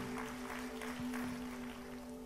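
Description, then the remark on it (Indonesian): A church audience claps together in a dense, steady burst of applause for the name of God, with a sustained keyboard tone humming underneath throughout. “Come on, berikan tepuk tangan bagi nama Tuhan.”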